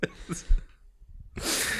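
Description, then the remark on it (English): A few short coughs, then a brief pause and a longer, rough, throaty burst of someone coughing up phlegm. “I know we're we're both over here like a little worried, coughing up phlegm.”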